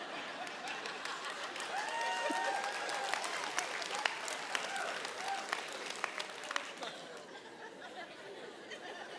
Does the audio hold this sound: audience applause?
yes